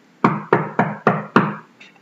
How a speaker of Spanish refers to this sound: Una noche hubo una tormenta y el rey escuchó que alguien llamaba a la puerta.